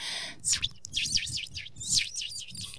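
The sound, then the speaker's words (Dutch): A voice imitates a small bird passing by with quick, high chirps, about a dozen in two rapid bursts, moderately loud, with no speech. “En dat, dat dat dan een vogeltje is wat voorbij komt.”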